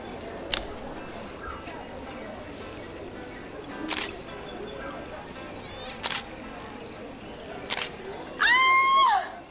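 Four crisp camera shutter clicks as someone takes photos from a rock, irregularly spaced a couple of seconds apart, over a steady hiss of outdoor ambience, followed by a short, high warbling chirp at the end.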